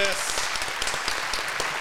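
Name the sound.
applause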